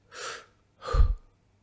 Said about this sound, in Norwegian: Hva er liv? Jo, liv er å puste inn, men det er òg å puste ut. Inn, ut.